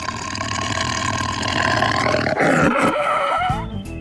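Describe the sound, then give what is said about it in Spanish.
A person imitates a tiger with one long, loud, rasping roar lasting about four seconds, growling and rising in pitch before breaking off. “Mira, ahora sí te voy a hacer mi imitación de tigre, mira.”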